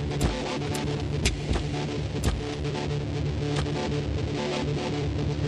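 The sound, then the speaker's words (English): A modular synth telharmonic oscillator patch drones steadily, dense and buzzy with rich stacked harmonics, punctuated by a few sharp clicks in the first seconds. One output goes straight into the mixer and another into a Kith Ruina module. It plays alone, fairly loud, with no talking. “So right now what you hear is the, uh, that's the telharmonic.”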